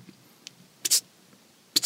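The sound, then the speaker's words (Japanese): A voice imitates the crackle of surgical cautery searing flesh to stop blood vessels during an underarm operation, making two short, sharp, hissy pops spaced about a second apart, fairly loud against near silence. “また別の音すんのよ、これ何の音だ全然わかんないけどピチッピチッって音がすんのこれ何の音ですか?」っつったら「あ肉を焼いてます」っつってあの血管を止めて焼いてる肉を焼いてますって言われるの超怖いね”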